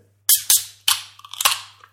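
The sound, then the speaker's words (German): Canned whisky-cola cracked open: three sharp metallic snaps in quick succession, then a bright, sputtering fizz with one more pop inside it, over a faint low hum. “ja gut, aber machen wir die Dinger mal auf.”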